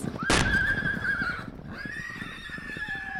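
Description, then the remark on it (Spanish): A horse, shot at point-blank range, lets out a loud, drawn-out whinny that rises, holds, and trails off in a second shrill cry. A sharp noisy burst cuts in right at the start. “El caballo de Allende fue derribado por un balazo a quemarropa.”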